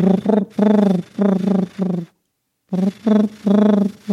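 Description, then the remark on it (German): A person imitates a wood pigeon's cooing with their voice: soft, low hooting coos in two rhythmic phrases of several notes each, separated by a short pause, fairly loud. “Ich mag auch das Geräusch, was die machen. Die machen ja irgendwie so, so”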